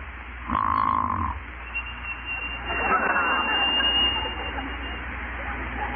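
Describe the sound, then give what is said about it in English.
A frictional, non-lubricated dry snore of type 2B: a short squeaky, whistling tone followed by a longer rasping, breathy scrape, moderately loud over a steady low hum, with no talking. “2B is the frictional or non lubricated form, like this.”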